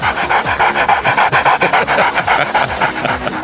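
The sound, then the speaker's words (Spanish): A person imitates a pitbull dog panting: rapid, rhythmic breathy huffs repeating steadily, loud and continuous for a few seconds with no words spoken. “Hacerle como el pitbull de la casa, loco, ahí, eh.”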